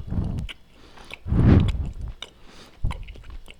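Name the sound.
biting and chewing food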